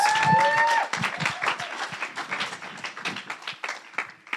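An audience at Arena Church applauds a speaker coming up, with steady, dense clapping that gradually thins out over a few seconds. A brief tonal whistle or feedback tone sounds at the very start.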